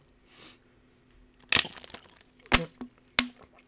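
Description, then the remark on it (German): A plastic water bottle is deliberately squeezed and crinkled to make crackling sounds while taking a sip of water, in three sharp, crackling bursts, each a loud crunch with scattered smaller crackles between, after a faint soft rustle at the start. “ich wollte es jetzt irgendwie cool machen, aber habe mir halt, also ich wollte so Knister von der Flasche machen, aber mhm.”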